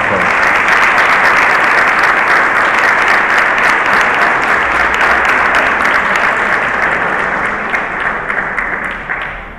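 Loud, sustained audience applause with dense, steady clapping from many hands, holding strong throughout and easing off slightly in the final second or two.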